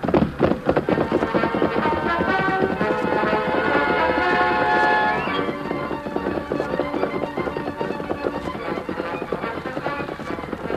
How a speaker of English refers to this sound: In a moment, the great white stallion was thundering after the escaping rider. Come on, Silver. Faster, boy.